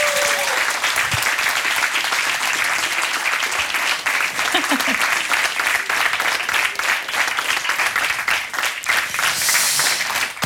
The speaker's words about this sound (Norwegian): Så nå kan dere gi en varm applaus til dagens panel.